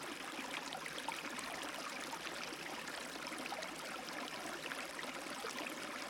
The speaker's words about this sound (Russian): Вы слышите шум воды, вода в реке течет спокойно и лениво.